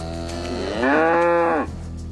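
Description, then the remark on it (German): A farmer's cow in Germany lets out a single loud, drawn-out moo lasting nearly a second, rising then falling, over a steady low background hum with no talking. “hat jedenfalls Angst um seine Kühe.”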